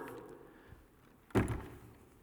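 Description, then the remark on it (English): A freestanding door is shifted into place, with one solid wooden thunk and a brief rumbling scrape that fades, with no voices before it. “You see, here's what I want you to see about this door.”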